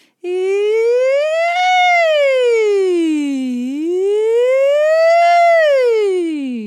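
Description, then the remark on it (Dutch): A single voice sings a smooth siren-like glide, rising and falling twice in long, slow sweeps, loud with no talking. “Maar wat kan helpen is bijvoorbeeld om een sirene te, te zingen.”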